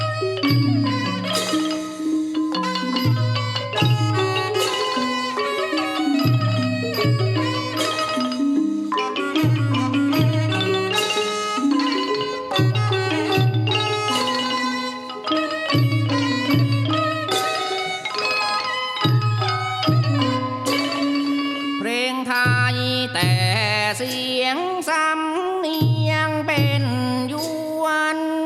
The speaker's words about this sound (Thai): ด้วยเพลงสำเนียงยวนชื่อว่ายวนทอดแห ครูสมชายทัพพรและศิลปินแห่งชาติรุ่นพี่ของท่านคุณครูแจ้งลารสีทองได้ร่วมกันบันทึกเสียงเอาไว้ในงาน 12 ภาษาของครู เสรีหวังในธรรม